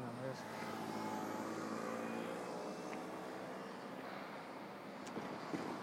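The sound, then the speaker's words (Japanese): A car engine rumbles with a steady, droning hum and broad road noise that holds fairly constant throughout, as the car comes up from behind at a pedestrian crossing, waiting to turn left, with a faint voice murmuring in the background. “今あの横断歩道を渡ろうと思ったら後ろから左折希望の車が迫ってきていたのであえて渡らなかった危ないから。”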